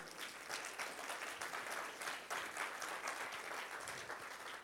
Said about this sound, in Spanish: Dele fuerte un aplauso a Cristo.